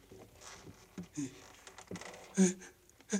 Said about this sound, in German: Haben Sie das eben gehört? Was? Schritte. Ach, Unsinn, Sie hören Gespenster. Oh nein, ich habe auch etwas gehört.